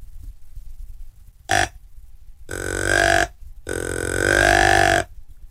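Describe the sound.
A person imitates a buck deer's grunt: a short throaty burst, then two longer, loud, droning guttural grunts, with no talking.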